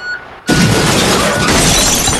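A sudden, loud crash of glass shattering as a 40-ton wrecking ball smashes through during a TV installation, the breaking debris roaring on for about two seconds after a brief quiet start, with no voices.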